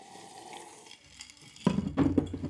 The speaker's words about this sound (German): Halt, wir müssen jetzt erstmal anstoßen hier. Ja, Prösterchen. Halb zwölf in der Nacht Stößchen.